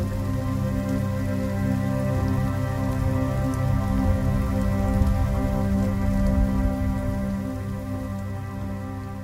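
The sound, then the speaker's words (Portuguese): Steady rain falls through the night without pause, a dense, even patter spread across the whole stretch with a low rumbling undertone. No voices, just the constant wash of rainfall. “A chuva cai durante toda a noite e a garota mantém-se dormindo até de manhã.”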